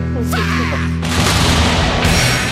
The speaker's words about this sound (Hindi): ladies जीत गई है बजाओ बजाओ उनके लिए तोप चलाओ